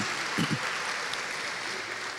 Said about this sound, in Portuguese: vamos dar um aplauso ao Senhor, hein? É bom isso, você se entusiasmar com isto.